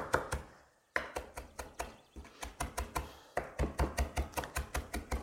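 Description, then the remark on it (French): A knife chops parsley leaves rapidly on a cutting board in quick bursts of sharp, steady taps, pausing briefly between runs, fairly loud with no talking. “Je reprends un petit peu quand même parce qu'il me reste des feuilles un peu entières.”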